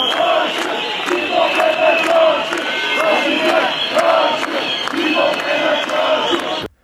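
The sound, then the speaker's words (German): A large crowd of football ultras from three very large ultra groups chants together at the Gezi protests in Istanbul in a loud, sustained roar, voices rising in rhythmic pulses with sharp percussive hits cutting through, steady throughout before stopping abruptly. “das, was ihr da gerade gehört habt, das waren gemeinsame Fangesänge dreier sehr großer Ultragruppierungen”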